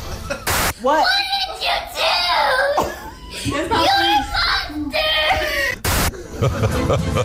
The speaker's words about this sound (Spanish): Al ver la imagen, la dueña del perro, una niña, eh, dueña del perro y de la Barbie, las dos empezó a llorar y a gritarle al can que era un monstruo. Escuchamos el truculento corte de la mocosa.